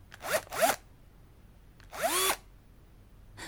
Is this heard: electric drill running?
yes